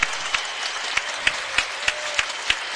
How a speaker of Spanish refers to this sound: Hay falta de Omar Cook. Bola para Breogán. Y ahí se retira aplaudido Omar Cook.